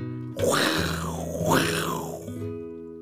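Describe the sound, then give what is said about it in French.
A person imitates a lion's roar, one loud, raspy growl of about two seconds that swells twice, set over soft, steady background music. “Et c'est depuis ce jour que les lions font.”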